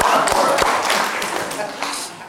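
An audience at a presentation applauds, a dense, steady patter of many hands clapping for about two seconds at a fairly loud level before easing slightly.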